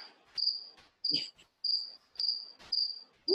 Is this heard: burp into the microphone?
no